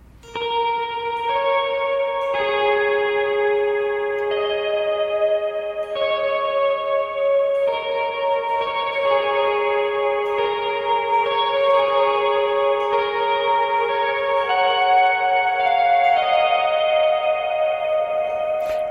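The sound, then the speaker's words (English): Guitar chords picked through a stereo reverb effect set to wet only, each change smearing into long, washy sustained tones with no dry attack, loud and continuous for the whole stretch. “I am picking my guitar, but you're only catching the repeats and that effect is made even more dramatic on reverb style effects. So I'll do that to the uh, the wet reverb, and you can kind of hear what that is.”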